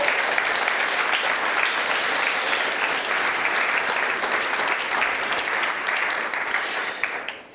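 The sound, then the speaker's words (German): Sustained audience applause, a dense steady clatter of many hands clapping at full volume throughout, tapering off slightly at the very end. No voices stand out. “Komm, wir geben ihm einfach so einen fetten Applaus.”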